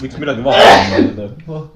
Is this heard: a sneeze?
yes